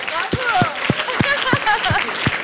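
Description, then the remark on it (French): An audience claps in a steady rhythm, about eight sharp claps in quick succession, while voices call out and talk loudly over the clapping. “On veut l'applaudir”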